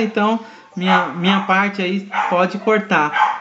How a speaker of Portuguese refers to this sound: mas tem um cachorro latindo bem agora